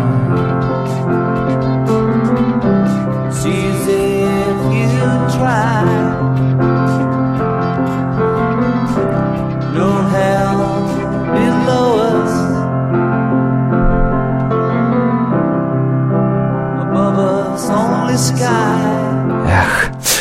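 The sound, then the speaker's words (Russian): A recorded pop song, played from a computer, plays continuously at full volume, with sustained instrumental harmonies and a melodic vocal line, and no talking over it. “…. А, вот сейчас я пытаюсь с компьютера запустить.”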